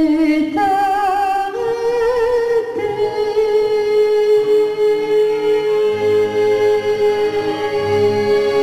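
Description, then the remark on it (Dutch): An 85-year-old woman sings a sustained, wavering melody with strong vibrato, holding long notes over a soft instrumental accompaniment at a concert in the cultural centre in Mechelen, heard clearly and continuously. “voor de vrouw die u nu hoort zingen. Die is net 85 geworden.”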